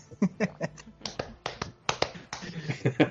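Someone thumps their chest over and over, a quick, uneven run of about a dozen dull, close-up hits with short pauses between bursts.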